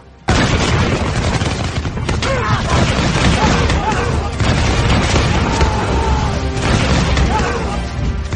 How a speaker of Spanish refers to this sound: Apenas restaban 30 pasos de nuestras bordas y en cuanto estuvieron a buena distancia, di la orden que se repitió a lo largo del navío provocando un estruendo y una lluvia de balas y pólvora.